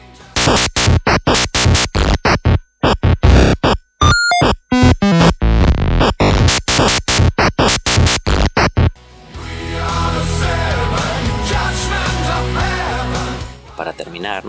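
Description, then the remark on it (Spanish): Choppy, buzzy Atari 2600 chiptune music from the Lupi loop sequencer teaser video, with short square-wave notes and bleeps in a stuttering rhythm, shifting halfway into a denser, steady wash of gritty electronic tones. “en la web oficial de Lupi también tienes un video teaser para que compruebes las capacidades sonoras de este sistema, que suena así.”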